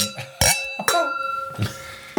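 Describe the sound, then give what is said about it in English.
Glasses clink together in a toast, several bright, ringing chinks in quick succession with high tones that hang and shimmer before fading, plus a couple of softer knocks toward the end. “So I think we should raise a glass to that.”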